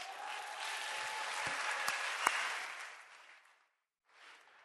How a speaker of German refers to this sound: Und ich möchte aus diesem Grund, dass wir einen Applaus geben für diese Mitarbeiter, die Gott uns geschenkt hat.